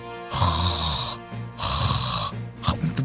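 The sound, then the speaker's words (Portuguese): A voice imitates harsh, raspy breathing, two long throaty rasps like someone hawking up phlegm, loud, followed by a shorter rough snort-like burst. “parece que eu tô tirando um catarro, né?”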